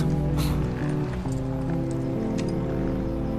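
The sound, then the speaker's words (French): Horse hooves clip-clop over a steady low, humming background, with a few sharper knocks scattered through the few seconds. No one speaks. “descends de ton cheval. Rends-le à Tommy.”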